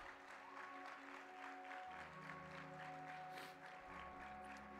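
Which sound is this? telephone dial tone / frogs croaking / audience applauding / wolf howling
audience applauding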